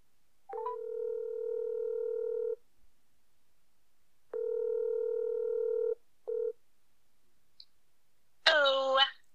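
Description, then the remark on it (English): A phone call being placed: a short burst of dialing clicks, then two long steady ringback tones separated by a pause, another brief tone, and a voice answering at the end. “So, let's give her a call and ask her all these questions.”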